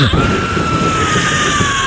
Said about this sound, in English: Hear the horrid screams of your wife as she burns something yet again.